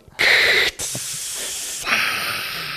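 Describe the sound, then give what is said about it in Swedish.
A voice imitates a beer can cracking open with a loud, sustained breathy hiss. It comes in several close spray-like bursts over about three seconds, with no speech around it. “då och då knäckte någon en bärs liksom och det lät för jä...”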